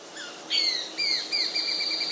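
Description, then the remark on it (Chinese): A Besra sparrowhawk calling: a quick series of about four shrill, high-pitched notes, each slightly falling in pitch, loud and insistent over a faint hiss, with no voices. “不过比起住在公园的凤头苍鹰来说，松雀鹰呢比较隐秘一点，而且它比较凶悍，常常会主动攻击其他的猛禽，叫声也不太一样哦。”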